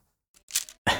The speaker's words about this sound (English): it's sound of breaking some of Erin's bamboo sticks